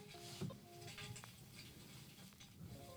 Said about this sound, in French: On entend l'eau qui coule. Ouais. Ah non, c'est là, il y a une gouttière derrière, alors il pleut. Il n'arrête pas de pleuvoir.